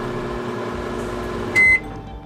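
A microwave oven hums steadily, then gives one loud, sharp beep before the low drone carries on. No one speaks.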